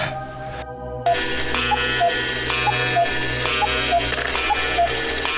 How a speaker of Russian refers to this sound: Заткни ты уже эту птицу! А что я могу с ней поделать? Это настенные часы. Да просто убери их! Они сводят меня с ума!